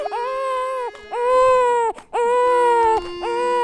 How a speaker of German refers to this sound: Und in dieser auf- und abfallenden Linie weinen im Durchschnitt auch die meisten deutschen Babys.